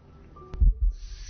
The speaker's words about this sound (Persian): صدای ضربان قلبم رو میشنیدم